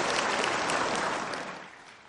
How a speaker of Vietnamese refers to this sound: Kính thưa quý vị, xin quý vị dành một tràng pháo tay thật lớn để chào mừng Thanh Hải Vô Thượng Sư, tác giả của quyển sách bán chạy nhất Những chú chim trong đời tôi.